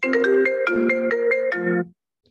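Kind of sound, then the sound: signal or alarm, phone ringtone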